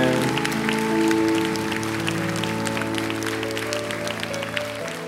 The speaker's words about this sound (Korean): 우리 여기 대표로 올라왔지만 또 분당에서도 그렇고 우리 예배하는 모든 우리 청소년들에게 다시 한번 뜨거운 사랑의 격려의 박수 부탁드립니다.